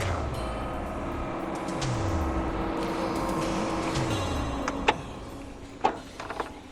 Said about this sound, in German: als der Wagen nach einigen Minuten vor der elektrischen Schleuse des Sportgebäudes zum Stehen kam.